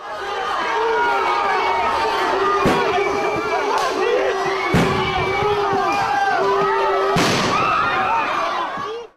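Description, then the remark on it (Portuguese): A dense crowd screams and shouts nonstop as riot police advance on it after an afternoon of negotiation, while several sharp stun grenade blasts, about four, burst out at irregular intervals, the last one the loudest. “o dia terminou aos sons de gritos e bombas, registrados pelo TJ UFSC”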